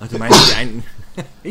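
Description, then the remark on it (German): A single sharp, forceful sneeze bursts out, followed by a quick laugh and casual talk from the other people present. “Gesundheit.”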